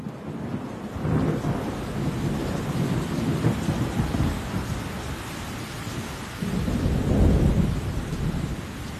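A thunderstorm in Joburg (Johannesburg), South Africa, with steady rain hissing throughout and deep rolls of thunder rumbling in two swells, one early and a louder one near the end, with no voices.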